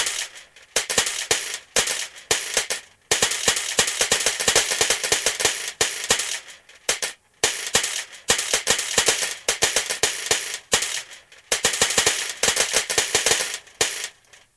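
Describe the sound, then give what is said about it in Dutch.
Pepernoten (ginger nuts) dropping one after another in a Sinterklaas counting game, 54 in all: dozens of small, sharp clicking taps in a quick, uneven rhythm with a few brief pauses, steady in loudness, with no voices. “hoeveel pepernoten hoorde jij vallen?”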